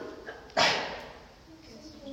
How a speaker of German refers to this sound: Gesundheit.